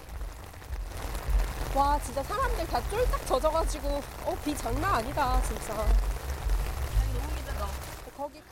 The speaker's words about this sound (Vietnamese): Ôi, thật không may, mây đen kéo đến răng kín trời và những hạt mưa nặng hạt bắt đầu rút xuống. Mưa trút nước xối xả, như thể bầu trời có một lỗ thủng to vậy.